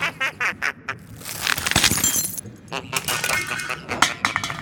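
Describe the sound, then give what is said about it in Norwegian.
Crunching and cracking as objects are crushed and broken in the jaws of the Grompen, whose chewing motors are slowed by sensors: a quick run of sharp bursts, then a dense splintering stretch, then more scattered snaps and crackles. “For mistenkelig mange ting blir ødelagt etter en runde i grompens kjeft.”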